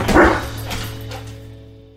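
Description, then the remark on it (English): A dog named Pepper lets out one loud bark, followed by a couple of softer, shorter yips that trail off, with a steady low hum underneath and no talking. “Hey, Pepper, want to go for a walk?”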